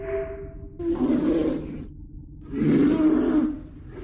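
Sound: bear roaring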